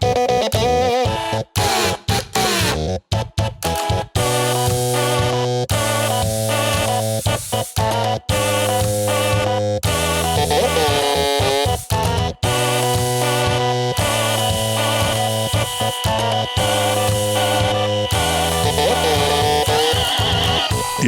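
A buzzy, electronic-sounding melody pieced together from household gadgets, with sustained tonal notes in a steady rhythm and abrupt cuts between phrases. Loud and continuous, with no voices.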